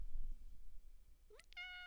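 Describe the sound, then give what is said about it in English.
A cat named Luna gives a quick rising chirp and then a steady, drawn-out meow, soft, over a low background rumble with no one talking. “I don't know what this cat is doing.”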